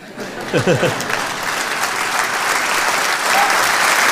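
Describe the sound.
Steady audience applause, a dense wash of many hands clapping that holds at an even, fairly loud level for the whole stretch, with a brief burst of voices near the start.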